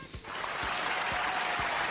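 A steady wash of clapping fills the whole clip, dense and noisy, with a few soft low thumps recurring about every half second underneath.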